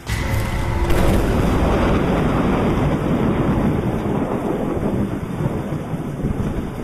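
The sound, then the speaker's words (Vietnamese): A loud thunderclap cracks about a second in and rolls into a long, heavy rumble, while dense, steady rain pours throughout. No voices are heard. “Thì một tiếng sấm nổ kinh thiên động địa vang lên”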